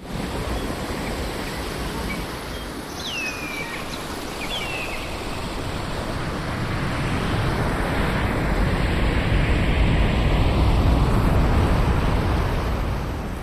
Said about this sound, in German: Ja, da wünsche ich mich jetzt direkt da in das tropische Top-End. Und zwar ist das das Rauschen eines Wasserfalls. Und das beschreibt äh, so die Landschaft im, im tropischen Norden.